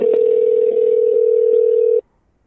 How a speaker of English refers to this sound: You can say, connect me. Connect me. Or repeat number. Your call is being connected.